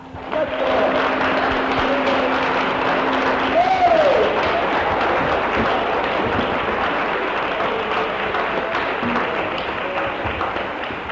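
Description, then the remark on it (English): An audience applauds heartily, giving Jesus a hearty clap, a dense, steady wash of clapping that starts almost at once and holds strong for about ten seconds, with a brief whoop rising above it early on. “Well, let every one of us start off with giving Jesus a hearty clap.”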